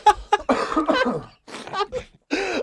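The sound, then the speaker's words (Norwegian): A stifled cough from someone trying to hold back a cough: several short, muffled bursts pushed through a closed throat, mixed with strained voiced breaths across a few seconds, with no clear speech. “For det er ansiktet ditt når du sitter og hører meg snakke om selvmord og prøver å holde igjen en host”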